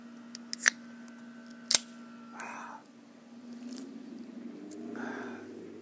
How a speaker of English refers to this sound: Uh, just I'm sitting outside, about ready to crack a beer. Let's listen to that.